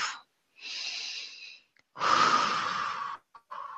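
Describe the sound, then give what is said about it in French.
Slow, deep breaths drawn in and let out, clearly audible, each long airy inhale and exhale separated by brief pauses, with no talking. “Écoutons cet air qui va et vient à l'intérieur de nous.”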